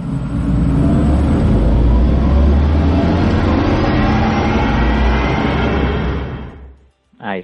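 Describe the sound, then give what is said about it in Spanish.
An electric sports car drives past loudly for about six seconds, a steady low rumble with a rising whine layered over wind-like noise, then it fades away and a voice briefly speaks. Its sound is very similar to that of the road-going Audi e-tron. “del Audi e-tron GT, eh, y ahí podéis escuchar un sonido muy parecido al que tiene el e-tron de calle.”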